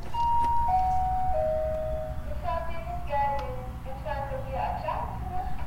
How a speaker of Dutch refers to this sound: U heeft bezoek. Doet u de deur maar open, is de vertaling van de bel dus even zien wie er open doet.